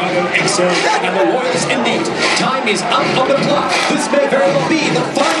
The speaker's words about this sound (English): this crowd is on fire right now, and it's not the speakers at all. It's the crowd.